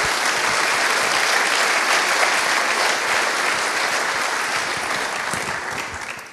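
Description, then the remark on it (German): Steady, loud audience applause from a full house at a Bürgeruni public event at Zeppelin University, with dense crackling claps throughout, holding strong for several seconds before easing slightly toward the end. No one speaks. “Also vielen herzlichen Dank für das große Interesse. Applaus”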